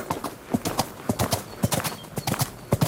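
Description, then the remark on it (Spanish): Rapid clip-clop of a horse's hooves galloping in a quick, uneven rhythm, moving off and staying fairly loud throughout, with no talking. “Zasca escapar galope.”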